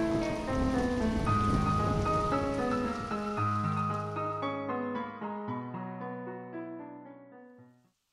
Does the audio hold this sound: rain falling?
yes